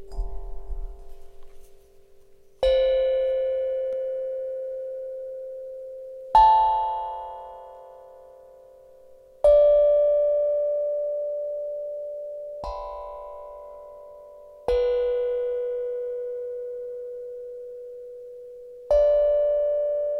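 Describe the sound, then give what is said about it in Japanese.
A newly bought slit drum is struck slowly, about six single notes a few seconds apart, each a clear mellow tone at a different pitch that rings and fades. No one speaks. “えっと、ちょっと楽器を買って、それにハマってるので、それを演奏というか、それの音を流し続けます。”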